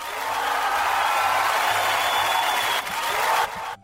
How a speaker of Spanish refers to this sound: Amigo, escuche los aplausos, escuche.